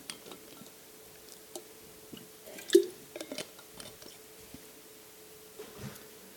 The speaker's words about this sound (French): Maintenant, je prends une gorgée d'eau, puis on va prier, puis on va continuer.